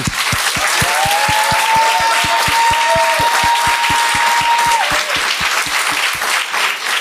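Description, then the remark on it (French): Loud, steady audience applause welcoming Daniel Torado and Thomas Wiesel fills the whole stretch, with a fast regular thumping beat underneath and a long high-pitched whistle or cheer rising over it midway. “mais j'aimerais ça qu'on leur donne bonne main d'applaudissement.”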